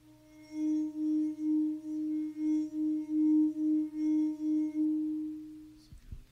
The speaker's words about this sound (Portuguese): A taça emitiu sons diferentes quanto mais eu enchia, certo? Em qual das situações ela ficou mais parecida com o som do trovão? No começo ou no final? no final, som grave do trovão.